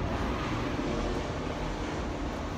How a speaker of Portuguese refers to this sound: O lindo avião passando.